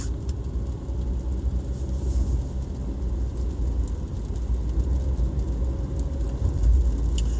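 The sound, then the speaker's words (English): Steady traffic rumbles past on a wet road in the rain, a continuous low engine drone with a faint hiss of tires on rain-soaked pavement, with no voices. “Cars are going by.”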